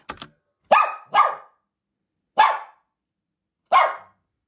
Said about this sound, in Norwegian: Nå skal jeg spille av noen bjeffelyder for deg klarer du å høre hva hunden føler? Første hund ut kommer her.